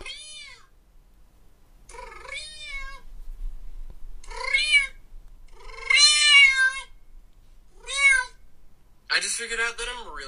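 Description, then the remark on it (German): A man's voice imitates a cat, giving six drawn-out, wavering meows with short pauses between them, each rising and falling in pitch, fairly loud with no other talk, played from a split-screen TikTok video. “auf der rechten Seite sieht man halt den Typ, der diese komischen Geräusche macht”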